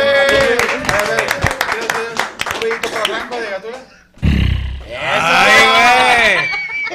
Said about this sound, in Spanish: aquí está con otro aplauso. Sí, ya sé.